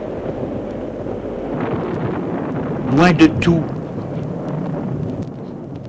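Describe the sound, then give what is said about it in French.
Steady roaring wind of a rainstorm in a mountain pasture fills the background while a voice talks over it, and a couple of sharp, loud thunder cracks burst out midway. “Le vent le tonnerre, le ciel qui devient sombre.”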